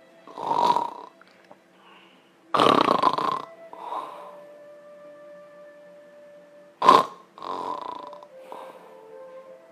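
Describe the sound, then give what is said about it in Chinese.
A person imitates severe, harmful snoring: heavy, irregular, uneven rasping snores rising and falling in loudness, then a long near-silent pause broken by a sudden sharp, loud snort and a few more snores. “恶性打呼噜是什么一个状况呢？我们来模仿一下。”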